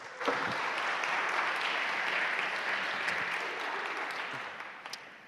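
Steady audience applause welcoming a speaker as he comes up to speak, a dense wash of many hands clapping at once, holding fairly even for several seconds before easing slightly toward the end.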